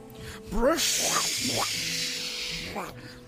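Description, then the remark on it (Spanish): A person imitates an elephant's trumpet: a breathy, hissing blast with wavering, rising and falling vocal squeals, lasting a few seconds, fairly loud. “Barritó el elefante feliz.”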